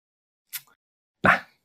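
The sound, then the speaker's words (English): A dog barks once, a short, sharp woof preceded by a brief, quieter yelp-like sound, with silence around both. “I'm gonna fucking kill that dog.”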